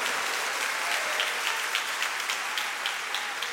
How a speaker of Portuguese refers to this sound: palmas palmas ao Senhor. Dá um glória a Deus, igreja do avivamento.